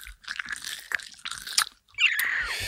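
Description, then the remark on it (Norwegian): Gum chewed right into the microphone: loud, wet, smacking mouth sounds in irregular bursts with short pauses, then a brighter crinkly rustle near the end. No one speaks. “jeg tar en tyggis hos deg”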